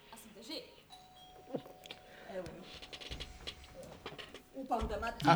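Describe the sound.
A doorbell rings with a clear, sustained electronic tone that hangs for a second or two, while muffled voices and household noises carry on around it and grow louder at the end.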